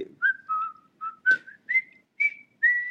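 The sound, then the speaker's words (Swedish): A person whistles a short tune of about seven clear notes, with brief gaps between them and a little rise in pitch, imitating the Värnamo football team's stadium entrance melody. “Vad var det Värnamo hade för inmarsch? Hörde ni den? Den här”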